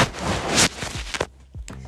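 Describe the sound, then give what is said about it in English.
A phone that is not mounted is dropped, giving a rustling scrape followed by a few sharp clattering thumps, loud and irregular, with short silences between the impacts. No one speaks. “dropping my dang phone, being unprofessional because I should have it mounted somewhere, but I do not.”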